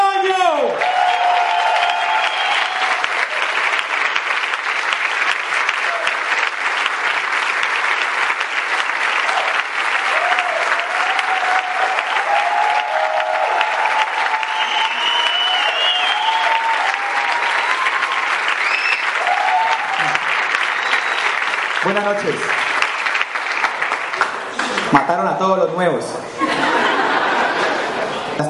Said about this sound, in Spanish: a recibir como se reciben a los campeones, de pie y con un fuerte aplauso al orador de esta noche